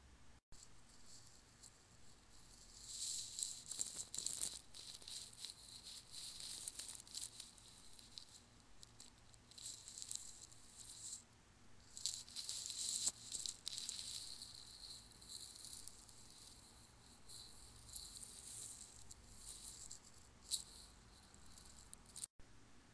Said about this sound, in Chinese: 好，那刚刚用来发出声音的其实是我的头发，但可能还算不上是 ASMR，大家可以再上网查查看。